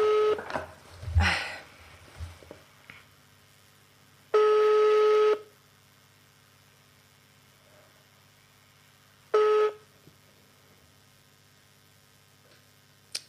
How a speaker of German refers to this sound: So, es klingelt.